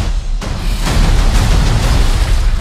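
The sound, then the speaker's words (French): A loud explosion bursts in with a heavy low-end boom, followed by a sustained roaring rumble of debris and blast noise that fills the rest of the moment, dense. “t'avais dit quoi Pas trop d'explosions Non, je t'ai dit aucune explosion”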